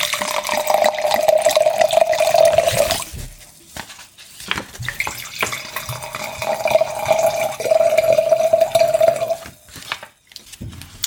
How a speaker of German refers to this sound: Ich würde mal den Rotwein einschenken, damit ja. wir seine Muffigkeit rausschwenken können.